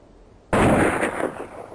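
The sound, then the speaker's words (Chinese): At night, after a brief hush, a sharp, loud blast of gunfire bursts in and keeps going as a sustained, rumbling volley with several fresh cracks rising out of the din. “忽然间，一声枪响在黑夜中绽放，然后便是激烈的枪声在夜空中经久不息，还有人类的惨叫声。”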